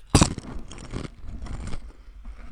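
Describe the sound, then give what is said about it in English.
Chips crunch loudly right against the microphone: one sharp bite, then a few more rough chewing crunches in uneven bursts, with no talking. “You're gonna hear so much crunching no, on my end.”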